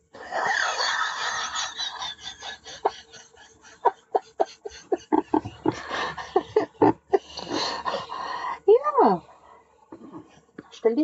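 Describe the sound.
A person imitates a shivering, freezing dog with quick chattering breaths and trembling puffs, ending in a few high, wavering whimpers, loud, with no real words.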